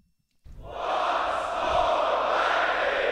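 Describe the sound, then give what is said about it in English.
A sold-out live show audience in London bursts into loud cheering and applause after a brief silence, swelling quickly into a sustained, dense roar of voices that holds steady to the end. “And that is the real What's More Likely from a live show in London. I love that. That's pretty good. Sold out crowd.”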